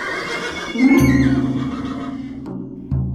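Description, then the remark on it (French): Horses whinny in terror in loud, shrill, wavering bursts that rise and fall over a few seconds, sounding panicked, with no voices present, as they are pulled toward the centre of a pyre. “tandis que les chevaux condamnés aussi à mourir avec le tyran hennissent de terreur, tirés vers le centre du bûcher par les esclaves noirs.”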